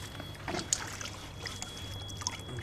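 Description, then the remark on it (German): Water is poured to refill a container, a steady splashing gurgle with a few brighter splashes over a faint low hum, no voices. “Wasser ein bisschen nachfüllen.”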